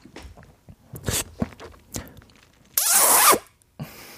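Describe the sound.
A voice imitates kissing: a few short, sharp lip smacks, then one loud, drawn-out hissy smooch lasting about half a second, and a final quick smack. No talking.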